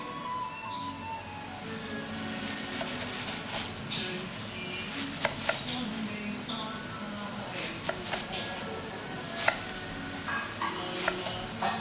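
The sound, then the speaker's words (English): A knife chops chives on a cutting board in irregular, sharp chops, partly buried under loud melodic Chinese music playing throughout, while Chinese food is being cooked. “Let me continue chopping my chives.”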